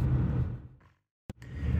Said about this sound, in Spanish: Otro día en el coche, estaréis contentos los del coche, ¿verdad?